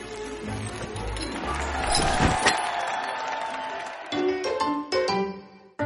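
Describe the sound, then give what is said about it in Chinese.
An audience applauds in a dense, steady wash of clapping mixed with crowd noise, swelling slightly midway, then breaking into choppier bursts before cutting off abruptly. “呃，好的，观众的掌声说明你们已经通过了考验。”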